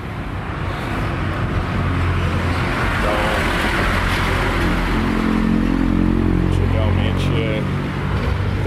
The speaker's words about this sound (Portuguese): tivesse passado por uma quantidade absurda de ônibus, inúmeras linhas.